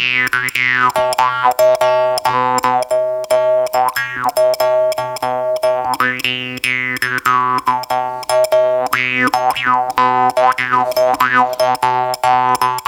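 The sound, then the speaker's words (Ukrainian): A jaw harp (drymba) twangs in a steady rhythmic pattern over a constant droning fundamental, its sweeping overtones rising and falling in a wah-like, boinging way, played loud with no talking. “Послухаємо тепер, як звучить дримба, якщо раптом ви забули.”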